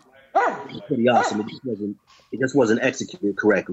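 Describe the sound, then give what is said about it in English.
A dog barks and whines in short, repeated bursts, overlapping with a man talking steadily throughout. “what the hell Shut that damn dog up. Yeah, that's that's my dog, guys.”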